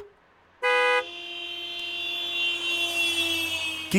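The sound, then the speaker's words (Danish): A loud, brassy car horn blast opens a jingle, then gives way to a long, steady held horn tone that lingers until near the end. No one speaks. “Og øh, den starter sådan her, kan I høre. Starter med nogle horn.”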